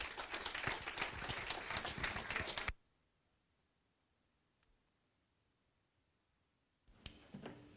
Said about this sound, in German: Gibt es ihm noch einen gescheiten Applaus?